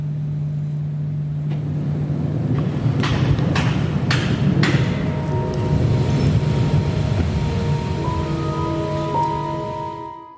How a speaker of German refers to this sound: Doch meist ist es ruhig und das Rauschen der Birken am Bahndamm wird nur durch ein anderes, etwas regelmäßigeres Geräusch übertönt. Das Brummen der sechs Turbinen der Lüftungsanlage des Stadtarchivs.